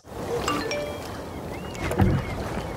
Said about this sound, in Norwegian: En eh, godt voksen mann sitter alene i en båt ute på havet og fisker, og så får han en SMS.